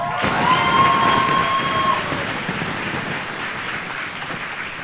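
Loud, steady applause from a large audience welcoming a surprise guest and his wife, filling the whole stretch, with a few whoops and cheers rising over the clapping early on before it slowly eases.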